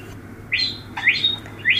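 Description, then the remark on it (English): A bird in a backyard chirps three times in quick succession, short bright rising notes with brief gaps between them, over a low steady background hum, with no one talking. “Someone has a nice bird in their backyard.”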